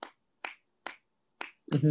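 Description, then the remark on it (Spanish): A seated person taps out a rhythm with the palms while starting to write a song: four crisp, sharp slaps at a steady, slightly unhurried pace, followed by a fifth as a person starts speaking over it. “Entonces fue como un momento en el que sientes que se te va la vida y, en donde agarré y me senté y justo con las palmas fue como...”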